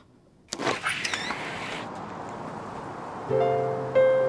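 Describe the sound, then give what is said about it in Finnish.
A window in a house is opened with a sudden clatter and squeak, followed by a soft rushing hiss and then a steady mechanical whirr that rises in pitch near the end. “Pitää avata ikkuna.”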